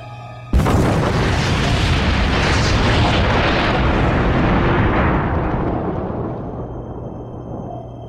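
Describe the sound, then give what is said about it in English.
A single huge underwater explosion of a fired torpedo striking its target bursts in suddenly, then rolls on as a loud, dense rumbling roar that slowly fades over several seconds, with no voices. “That explosion has our ears ringing.”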